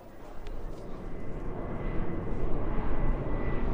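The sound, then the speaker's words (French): A steady, heavy airplane engine roar, deep and rumbling, swelling gradually louder over a few seconds as if the aircraft draws nearer, with no talking; a plane flying children from Prague to London in March 1939. “Le 14 mars 1939, les premiers enfants quittent Prague et arrivent à Londres par avion.”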